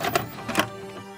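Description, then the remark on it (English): A VCR mechanism whirs and clunks as it starts playing a tape, with two or three quick mechanical clicks followed by a steady low motor hum. “Our VCR is ready to play stories about the horrors found in the out of doors.”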